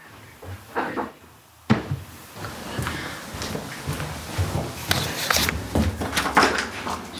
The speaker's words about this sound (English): Five minutes turns to 10 minutes, 10 to 15. Until finally, a knock at the door.